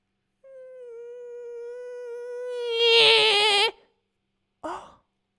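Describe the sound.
A voice imitates a mosquito's whine: one long, steady, nasal hum that swells in loudness and turns warbly near the end, then a short vocal yelp after a brief pause.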